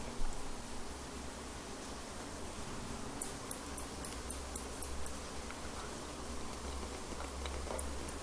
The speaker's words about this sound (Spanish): Y es que ahorita estamos en la selva entonces es una lluvia demasiado demasiado fuerte así que no te espantes ok no tengas miedo es algo normal